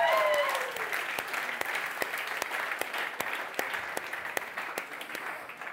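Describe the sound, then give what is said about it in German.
An audience claps steadily for several seconds in response to a presented building layout, a dense patter of many hands with a few sharper individual claps, and a brief whistle-like tone at the very start. No one speaks. “Ja, könnt ruhig klatschen, das ist super geschnitten.”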